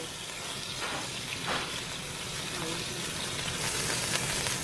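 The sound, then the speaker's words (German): Steady sizzling of squid sausage slices, dipped in an egg mixture, frying in a hot pan, a continuous crackly hiss with brief louder bursts, moderately loud throughout. “beginnt Yun Bukchas Tochter Kim Cheon Scheiben der Tintenfischsunde in einer Eimischung zu dippen und in der Pfanne anzubraten”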